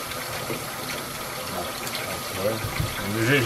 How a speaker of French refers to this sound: Et ben, c'est moi, je fais ma vaisselle, c'est le truc jaune.